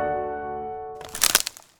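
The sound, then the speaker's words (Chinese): A held musical tone fades out, then a tree branch snaps in a quick cluster of sharp, loud cracks and splintering crunches lasting about half a second before falling quiet. “哦，乖乖，这是树枝被折断的声音。”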